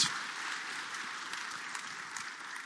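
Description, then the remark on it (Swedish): Steady audience applause for performing artists, a dense wash of many hands clapping at an even, sustained level throughout, with no voices standing out. “Och ett stort amen och en applåd för dessa fantastiska konstnärer.”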